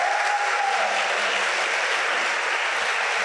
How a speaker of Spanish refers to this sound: A ver, todos los que, los que somos papás, regálenos un aplauso. Gracias.